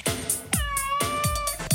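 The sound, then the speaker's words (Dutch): A cat meows repeatedly and insistently, several drawn-out, wavering cries in quick succession, fairly loud with no talking. “Sure, he's a cat.”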